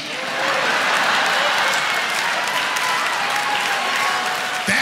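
A crowd applauds steadily, a dense wash of many hands clapping at once that swells in quickly and holds at a loud, even level for several seconds.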